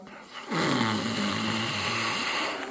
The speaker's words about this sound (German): Dann wieder einatmen mit dem Schnarchklang.